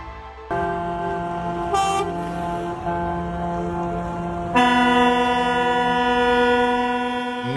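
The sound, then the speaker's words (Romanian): Truck horns blare in long, sustained tones during a protest by thousands of haulier trucks in Romania on 10 January 2024; one steady horn is joined partway through by a louder, brighter blast, so several overlapping honks drone together loudly with no talking. “Protest cu mii de camioane al transportatorilor”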